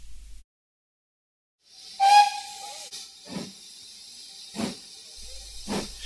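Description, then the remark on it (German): An old 1942 steam locomotive behind an engine shed hisses loudly, opening with a brief whistle-like tone, then releasing broad bursts of steam in three rhythmic puffs over a steady background hiss, under a summer sky. “Nachdem sie hinter dem Lokschuppen eine alte Dampflok aus dem Jahr 1942 bestaunt hatten, aus deren Schlot dichter schwarzer Qualm in den Sommerhimmel stieg,”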